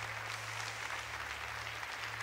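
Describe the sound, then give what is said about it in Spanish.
An audience at a night worship service claps steadily and continuously in applause to the Lord, a dense wash of many hands applauding together, with a low sustained hum underneath. “Dale ese aplauso con todas tus fuerzas.”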